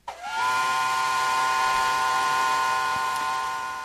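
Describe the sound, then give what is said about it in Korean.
A steam train whistle blows one long, loud, sustained blast as the train departs, with a rich harmonic tone and breathy hiss, rising quickly at the start and holding steady before beginning to fade. “아, 그래요그래요 어서 기차 타. 몸 조심하고.”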